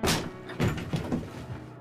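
A foot kicks hard against the upper area near the handle of a solid metal door, producing several heavy thuds with a dull ringing edge, spaced unevenly over a couple of seconds.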